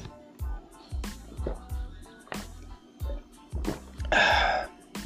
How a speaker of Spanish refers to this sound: Si tomo mucha, si se oye cómo tomo agua es porque estoy malo de la garganta.